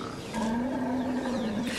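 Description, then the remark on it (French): A single loud, drawn-out trumpeting call of a woolly mammoth, an Ice Age animal, holding a steady low tone for over a second before trailing off, alone with no talking. “Un éléphant”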